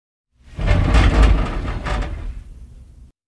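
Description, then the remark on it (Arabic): A man's house door swings open with a low rumbling slide and a brief scrape, loud, lasting a few seconds before stopping abruptly. “ذهبت الراوية إلى الحديقة وسارت باتجاه منزل الرجل كانت تلعب مع كلب في الساحة عندما انفتح باب منزله”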